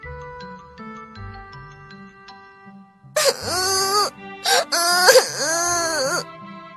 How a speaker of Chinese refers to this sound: 传来了哭声。三个兄弟鼠跑过去一看，原来是小蜥蜴在哭。